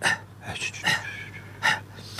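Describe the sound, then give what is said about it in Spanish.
A person imitates agonal gasping, the ineffective breaths made in the throes of death, making four or so harsh, breathy gasps at uneven intervals, with no other speech. “Son unas respiraciones que se hacen cuando están en los estertores de la muerte, que no son efectivas, son.”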